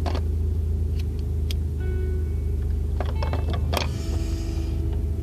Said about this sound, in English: Um, start off with the obvious. If shit sounds different, it's because I'm in my fucking truck and and I've been noticing I've had a lot of issues with my transmission lately, so.